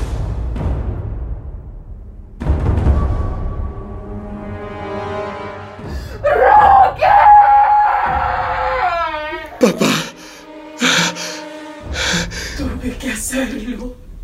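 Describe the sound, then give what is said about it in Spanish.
A woman screams again in long, loud, wavering cries that rise and fall in pitch, over a low rumble, followed by several sharp, choppy outbursts near the end. “Rosario volvió a gritar.”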